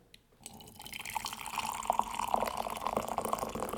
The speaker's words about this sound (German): Achso, und jetzt müssen wir, es wurde ja leider gelöscht, jetzt auf Viewer Request noch einmal äh, für alle Tee einschenken ganz nah am Mikro.